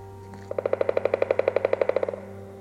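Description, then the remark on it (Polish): Forest ambience in the Polish Tatra mountains with a steady low background, broken by a fast, even series of about eighteen bright pulsed notes, a loud rattling call lasting under two seconds before fading out. “Lub po prostu wsłuchać się w odgłosy lasu.”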